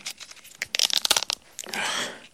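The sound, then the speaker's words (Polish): Dry, brittle crackling and crunching of an already-cracked walnut shell being handled, a cluster of sharp snaps followed by a steadier rustling grind, with no voices. “Chociaż jest on już rozbity. Taki orzech włoski.”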